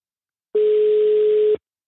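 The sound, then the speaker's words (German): A single steady electronic telephone ringing tone of an unanswered call, lasting about a second, clear, starting and stopping abruptly with no voices. “Ich lasse 80 Stunden klingeln. Bis du rangehst.”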